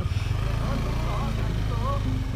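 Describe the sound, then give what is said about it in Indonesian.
A motorcycle passes outdoors, its engine droning with a steady, rumbling low hum that holds throughout, while people talk over it. “okay, ada motor lewat oke okay, Oke ini kita syutingnya di luar,”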